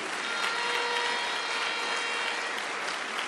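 A crowd claps steadily in sustained applause, a dense, even wash of many hands filling the room for a few seconds with no one speaking.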